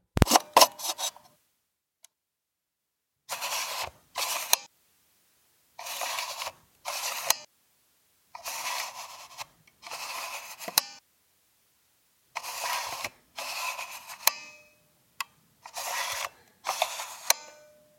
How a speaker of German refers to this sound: Hm, Schreibmaschine. Die hatten wir noch nicht. Es wird wahrscheinlich auch nicht so schwer. Schauen wir mal. Achso, Schreibmaschine.